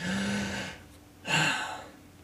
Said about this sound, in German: Atmest du gerade überhaupt? Mm. Oder weil du versuchst gerade irgendwas zu spüren? Mm. Ja, atme mal tief durch